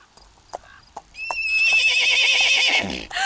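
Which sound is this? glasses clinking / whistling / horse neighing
horse neighing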